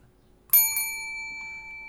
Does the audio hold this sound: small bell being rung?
yes